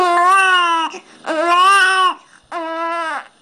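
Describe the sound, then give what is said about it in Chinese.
A newborn baby's first cry: three loud, high-pitched wails, each lasting close to a second, with short gaps for breath between them. No one talks over the crying. “对妈妈们来说，宝宝的第一声啼哭，”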